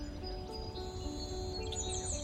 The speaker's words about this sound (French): Vous vous en souvenez peut-être. On entendait les oiseaux chanter, des animaux sauvages gambadaient dans les centres-villes vidés de toute activité humaine.